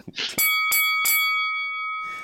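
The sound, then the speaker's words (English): A bright bell is struck three times in quick succession to mark a big win on a bet, each strike ringing out loud, with the tone sustaining and slowly fading afterward. “We get a bell here.”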